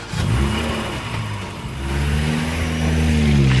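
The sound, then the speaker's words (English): A car engine revs up and accelerates, its droning pitch rising in two strong surges, loud with no voices. “It's a special turbocharged edition of the podcast. We have a full tank of gas, chrome wheels, and ahead of us, an open road.”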